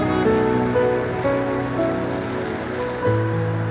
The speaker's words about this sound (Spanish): Creo que la lluvia de hoy fuerte. No sé, yo a veces pienso cosas, pero pienso que es una señal de bendición para nosotros hoy.